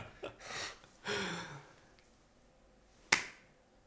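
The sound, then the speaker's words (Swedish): A single sharp, bright spontaneous hand clap rings out on its own after a few soft breathy exhales, with no talking around it. “Det var Mysigaste handklappning jag någonsin har gjort. Spontan applåd.”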